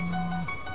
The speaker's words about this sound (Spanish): Ah, eso es mi celular, chicos.